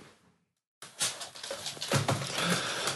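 After a brief silence, a dog named Gustav makes breathy, panting and snuffling noises with some rustling in a recording room, fairly loud and continuous for a couple of seconds.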